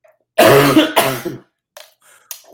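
Two loud, raspy coughs in quick succession, harsh and throaty, followed by a few faint wheezy breaths and smaller rough sounds, from someone choking on water that went down the wrong pipe while drinking and talking.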